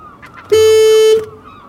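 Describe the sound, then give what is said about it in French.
A single loud, steady horn blast lasts under a second, bright and brassy, then cuts off, leaving faint background noise before and after. “Je trouve pas le klaxon.”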